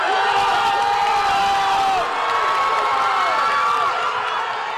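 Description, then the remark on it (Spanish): A crowd of fans cheers loudly in a gym in a small town in Alaska as 17-year-old swimmer Lidia Jacobi wins the women's 100 metres breaststroke, a dense, sustained roar filled with high-pitched shrieks and whoops that rise and fall without a break for several seconds. “mostraron a una multitud de aficionados en un gimnasio en una pequeña ciudad de Alaska cuando la nadadora de 17 años Lidia Jacobi ganó los 100 metros estilo pecho categoría femenina y este era el festejo que se escuchaba.”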